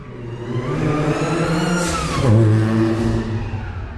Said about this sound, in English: I start off with my ideas and what makes a good sound for like rain. Or car passes or whatever.